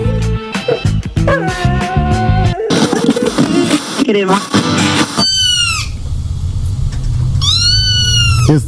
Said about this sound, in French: tentends tu ça, mon Louis? Il se passe avec les chats. Il y a des chats pas mal par ici